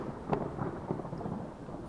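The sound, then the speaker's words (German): Thunder rumbles low and steady beneath the soft, constant hiss of rain starting up again after a break in the rain, with a slightly sharper swell near the start and no voices. “Okay, scheint dann wohl doch gleich wieder loszugehen.”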